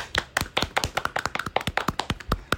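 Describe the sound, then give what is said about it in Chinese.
A short burst of applause from a few people, members of the Limadou channel applauding themselves on the channel's first anniversary: quick, sharp claps in a brisk, slightly uneven rhythm, around twenty in a couple of seconds, with no talking over them. “那在这里啊，我我也想请啊我们立马豆的啊几位成员啊能够掌声鼓励一下我们自己好吗？”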